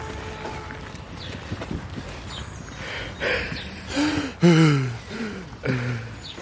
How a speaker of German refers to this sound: atmen